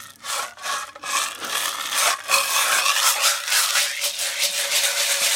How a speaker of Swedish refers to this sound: Men, men det går ju också att använda, jag har liksom en annan sån här, eh, det här är ju en, en shaker egentligen men